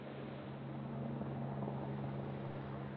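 A helicopter drones steadily throughout, its engine hum and rotor throb forming a continuous, fairly loud rumble with a low tonal whine. No one speaks.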